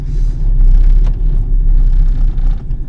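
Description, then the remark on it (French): A car engine idles and rumbles steadily, a low continuous drone with slight swells as the vehicle is maneuvered into a parking spot. No one speaks. “Alors, excuse-moi, je me gare et puis après je suis à toi. Donc du coup je suis garé.”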